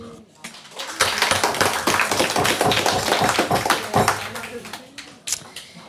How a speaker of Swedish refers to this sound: Stor applåd!